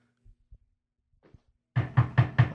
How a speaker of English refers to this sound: Oh man, I got to knock on the wood because you just fucking never know.